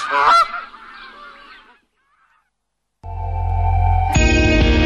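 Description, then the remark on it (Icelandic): Geese honk loudly in a short, overlapping burst in an advertisement for goose-hunting supplies from Vesturröst, fading out before a pause of silence, after which a steady, sustained musical drone takes over. “allt í gæsaviðina í Vesturöst.”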